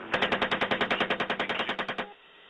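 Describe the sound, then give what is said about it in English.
A rapid burst of heavy automatic gunfire from US Apache helicopters during an April 2010 airstrike in Baghdad, about seventeen evenly spaced shots rattling off in two seconds before cutting out abruptly, loud and harsh with no voices over it. “that gunfire from those helicopters killed two Reuters journalists, both of whom were carrying cameras.”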